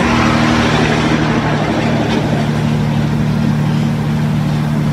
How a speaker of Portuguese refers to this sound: Carregado, hein? São um caminhão carregadíssimo aqui por mim, terra.